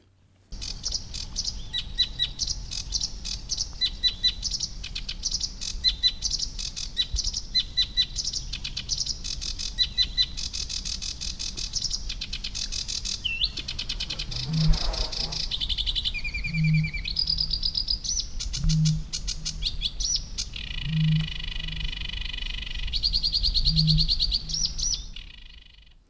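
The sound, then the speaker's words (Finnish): A sedge warbler's fast, scratchy chattering song runs throughout, while a bittern's deep, hollow booms repeat about five times in the second half, following a brief whoosh of a bird flying past. “No, joku lintu siinä mun mielestä suhahtaa nopeasti ohi ja kaulushaikara huutaa ja ruokokerttunen ja tuota nopea lento.”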